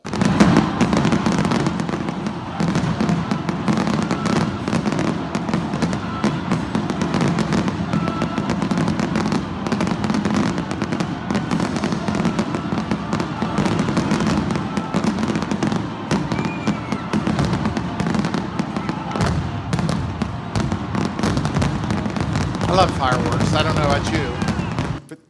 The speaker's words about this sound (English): It doesn't matter how bad or good the Rockies have been all year, they do this big fireworks display. And here's, here's uh, from a couple of years ago, here is uh, part, of the, part of the show.